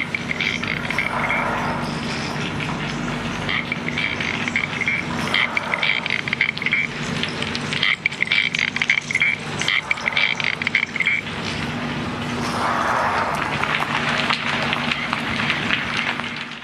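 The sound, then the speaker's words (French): A dense underwater soundscape recorded with a microphone under water: constant crackling and snapping clicks over a steady low hum, with bursts of rapid ticking that come and go, fairly loud throughout. “Alors en fait, quand tu mets un micro sous l'eau, tu vas enregistrer ce qu'on appelle un paysage sonore sous-marin.”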